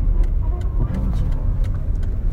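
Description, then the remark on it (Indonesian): Steady low rumble of car traffic on a busy, narrow, jammed street in Kemang, engines droning with a faint ticking over the top, continuous for a couple of seconds. “Kemang selatan entah kenapa Kemang padahal Kemang jalannya sempit macet bocahnya bawa mobil nah, tuh lu lihat rame nahan”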